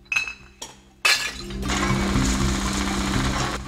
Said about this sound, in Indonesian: Botol-botol berbahan kaca dicacah dengan menggunakan mesin penghancur kaca.